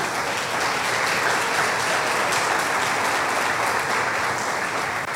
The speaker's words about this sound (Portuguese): Vamos aplaudir ao nosso Deus.